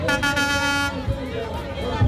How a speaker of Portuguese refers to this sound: Carreata, buzina, vai ter barulho, hein? Vamos ver se tem som aí.